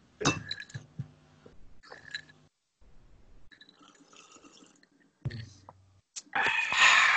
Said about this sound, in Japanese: じゃあ、とりあえず乾杯しましょうか、乾杯。はい。はい。じゃあ、えっ、ー、と、はい。乾杯ということで。はい、乾杯。乾杯。